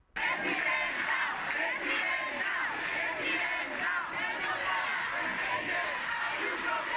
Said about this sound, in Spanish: Hoy se han escuchado, se han escuchado esta mañana gritos de otros alumnos, pero a favor de Isabel Díaz Ayuso.